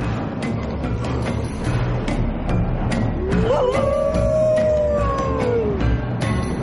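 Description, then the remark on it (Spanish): A long, drawn-out wolf howl rises midway and holds for a few seconds before trailing off, set against a dense, rumbling background with scattered crackles. No one speaks. “Los lobos aullan y se relamen contemplando a Nicolai.”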